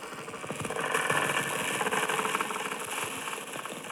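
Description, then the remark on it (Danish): A dense, grainy rumble of a can rolling across a table, processed so it sounds like white noise, continuous and fairly loud throughout, with a gritty, noisy texture and faint high-frequency metallic edges from the can. “og det er spændende det her med, hvad der sker, når du putter lyden af en dåse, der ruller over et bord ind, og så lyder det som sådan, altså jeg ved ikke, et eller andet white noise.”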